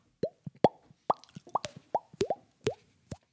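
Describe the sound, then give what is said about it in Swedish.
A voice imitates water drops with a quick series of wet mouth plops, about eight in an uneven rhythm, fairly loud, each popping upward in pitch like a droplet hitting water. “Det låter som en sån här bubbelakvarie. Eller sån här vattendropp, regndroppar ja, som regndroppar.”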